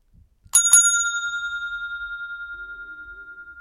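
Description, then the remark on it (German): A bright bell ding, struck twice in quick succession, then left ringing with a long, slowly fading metallic tone, marking an edit cut in a recorded conversation. Clear, with no voices over it. “ein kleiner Hinweis, es gibt äh, verschiedene Töne auch innerhalb des Podcasts, zum Beispiel, wenn du diesen Ton hier hörst.”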